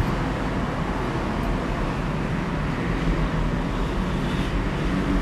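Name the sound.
road traffic passing outside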